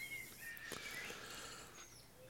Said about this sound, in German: Man hört zum Hintergrund, ihr seid draußen unterwegs, genießt das geile Wetter